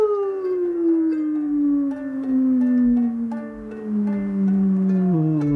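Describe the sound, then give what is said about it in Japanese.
A voice imitates the falling whoosh of the 'World's Deepest Bin', a park trash bin from a commercial that makes this sound when rubbish is dropped in: one long, steady vocal tone that glides slowly downward in pitch for over five seconds, fairly loud, with nothing else underneath. “っていう音が鳴るゴミ箱、というのを設置したらめっちゃゴミが取れました”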